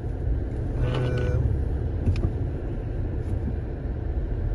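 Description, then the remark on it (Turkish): A steady low rumble of a car driving through morning traffic in Bucharest as people go to work, with a brief higher whine of passing vehicles early on and no one speaking. “Hani standart işte herkes işine gidiyor Bükreş'te. Sabah saatleri”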